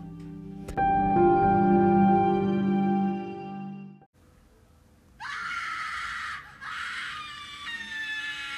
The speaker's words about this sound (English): When he turned the kettle off, the whistling didn't stop. It turned into a scream that sounded like a woman yelling for help.